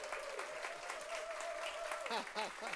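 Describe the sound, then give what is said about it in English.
An audience at a service breaks into steady, dense hand clapping to welcome five guests from Ledgestone Retirement Community, a continuous wash of many claps at even loudness, with a sustained tone and a few brief voice sounds rising through it toward the end. “Would you welcome them today, please, with a good hand clap?”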